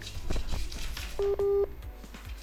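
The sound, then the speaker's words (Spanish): Two short electronic phone-line beeps as a call reconnects during a live broadcast, a brief tone followed by a slightly longer one, sounding over a noisy, muffled line with faint background chatter. “Ay, empezamos con el tutú la reconexión.”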